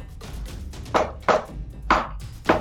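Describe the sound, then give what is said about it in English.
Four loud, sharp knocks land at uneven intervals, each a hard thud, with a low hum underneath and no voices. “When there is a sound of a louder knock.”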